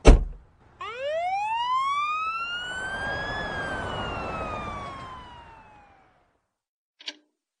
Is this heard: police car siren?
yes